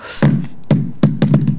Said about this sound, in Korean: 이게 북소리 같은데, 사과가요, 마룻바닥에 떨어져서 굴러가는 소리래요. 네. 이 소리요. 그렇게 설명 듣고 나니까 그렇게, 그렇게 들리시죠? 북소리 아닙니다. 사과가 마룻바닥에 떨어져서 구르는 소리.